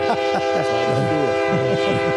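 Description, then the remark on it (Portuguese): A São Paulo metro train sounds its horn in a steady, sustained blast, loud, with rumbling, screeching wheel noise underneath as it pulls in. “Olha o trem. Cuidado aí. Olha o trem.”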